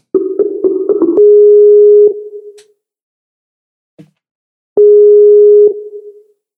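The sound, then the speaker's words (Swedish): A quick burst of phone keypad beeps as a call is placed, then a steady electronic ringing tone that sounds twice with a pause between, clear, with no voices. “Vi får ta och ringa nu tror jag.”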